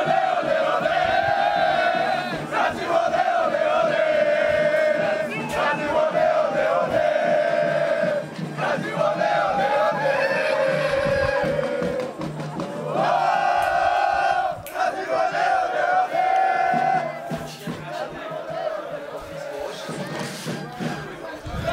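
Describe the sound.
A crowd of football fans sings and chants together loudly, their voices rising in sustained, rhythmic waves with shouts and cheers mixed in, keeping up a lively, festive roar throughout.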